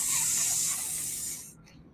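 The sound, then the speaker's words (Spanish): A person vocally imitates sofrito sizzling in oil with a steady, breathy hiss held for about a second and a half, then it cuts off abruptly, leaving quiet room noise. “Ese va a ser el ruido del sofrito, es como sofrito tocando aceite.”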